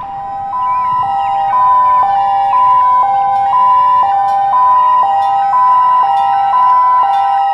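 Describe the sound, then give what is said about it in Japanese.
A loud police car siren blares, alternating steadily between two tones about twice a second, with no voices and only a faint low rumble beneath it. “よしあのパトカーを狙い撃て”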